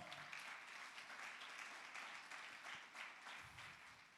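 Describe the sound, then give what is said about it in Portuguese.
A crowd applauds the Lord steadily, many hands clapping in a dense, continuous patter that fills the space for several seconds, with no voices standing out. “Aplauda o Senhor.”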